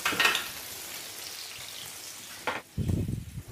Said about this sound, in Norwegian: Som jeg sa, et par minutter til, så kommer han der, vet du. knasende sprø ribbe.